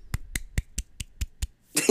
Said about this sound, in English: you're, you're, you're, for me, your claps are only catching like a couple of them,